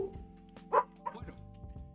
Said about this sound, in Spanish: este, sigue ladrando.